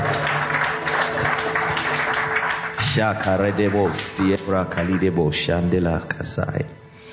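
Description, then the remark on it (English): An audience gives a hand clap of praise to Jesus, a dense, steady wash of applause, with a man's voice calling out loudly over the clapping for the second half. “Give him a mighty hand clap of praise.”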